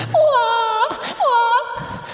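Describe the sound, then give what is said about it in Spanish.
A person imitates a baby crying: two loud, high-pitched wailing bursts with a wavering, rising-then-falling pitch, separated by a short breathy gasp, and no other talking. “empezó a llorar brígido.”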